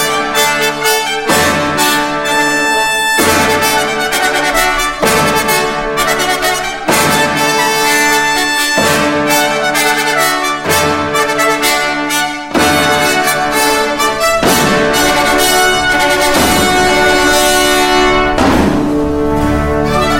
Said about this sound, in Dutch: We gaan luisteren naar de opening van de opera Orfeo.